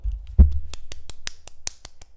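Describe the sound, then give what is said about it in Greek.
A single person claps hands in a quick, steady rhythm, about eight sharp claps after a dull thump, moderately loud, with no talking. “Μόνο μου χειροκροτά.”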